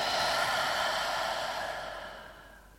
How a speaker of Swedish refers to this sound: Ta ett djupare andetag in. Och andas ut.